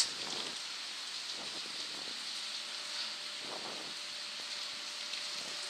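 Steady rain falls in a continuous hiss, with occasional heavier patters of drops and a faint breath of wind, with no voices.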